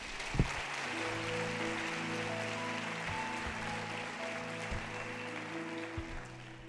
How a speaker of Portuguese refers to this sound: Aplauda o Senhor Jesus.